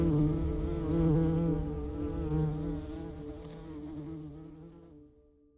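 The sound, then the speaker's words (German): A bumblebee buzzes with a steady, low droning hum that wavers slightly in pitch, continuing for about five seconds before fading out; no voices. “Ob die Hummel, ob andere Tiere das Gefühl von Angst auch selbst empfinden, könnte eine der zukünftigen Forschungsfragen sein und auch eine, die eng mit mehr Tierwohl verknüpft ist.”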